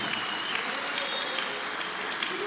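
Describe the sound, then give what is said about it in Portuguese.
A crowd claps and cheers steadily while a few shrill whistles cut through the noise, with faint voices mixed into the dense, continuous din. “Ouvem-se alguns assobios neste momento.”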